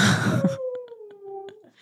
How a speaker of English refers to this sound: See, I told you it's the wolf moon. These the wolves. She's a husky. These wolves are gonna howl. They're gonna they're gonna let you know how they feel.